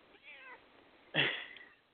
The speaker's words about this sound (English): Get out of here, cat!